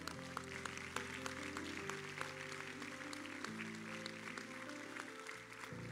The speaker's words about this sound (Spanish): No, si vas a aplaudir, apláudele fuerte al Señor.